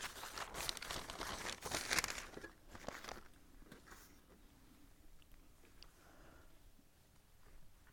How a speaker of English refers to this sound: I better shuffle through my notes so I don't get off track. Well, I always get off track, so that probably doesn't make much difference.